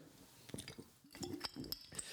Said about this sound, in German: Und dann nehme ich einen Schluck Wasser. Ich hoffe, du hast auch was dabei. Genieße es gleich.